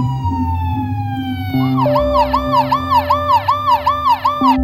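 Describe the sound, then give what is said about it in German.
A police car siren blares over engine rumble, starting with a steady tone, then switching to a rapid, repeating yelp that cycles rhythmically up and down, as police respond to a robbery at an ice cream parlour by the Thames. No one speaks. “Schon nach kurzer Zeit hört man die Sirenen der Polizei.”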